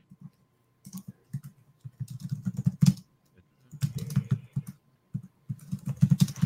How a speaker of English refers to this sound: tonight, Peter Cullen will be replaced by keyboard typing